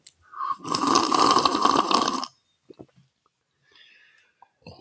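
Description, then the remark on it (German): A loud slurp of tea at Schliersee lasting about two seconds, harsh and airy with a gurgling edge, followed by a few faint clicks and quiet rustling. “Tee schlürfen und ein Imperium aufbauen.”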